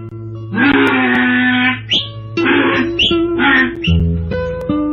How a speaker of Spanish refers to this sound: El burro rebuznando por allá el rincón de la placita.